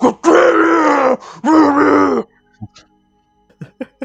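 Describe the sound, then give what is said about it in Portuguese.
A voice imitates a heavy metal singer with two long, loud, guttural growls, one right after the other, followed by a few faint, brief sounds. “Ele fala que é um som gutural, né? Então imagina um, vocalista cultural, de heavy né? metal.”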